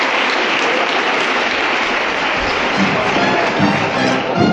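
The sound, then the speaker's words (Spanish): Sustained applause from a large crowd of people inside a church fills the reverberant space, dense and steady for several seconds with a faint murmur of voices underneath. “un aplauso entre las personas que hay aquí dentro del templo.”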